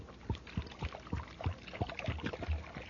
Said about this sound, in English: But you hear that? The driver's filling up the tank with some super fuel. Something's going to happen now.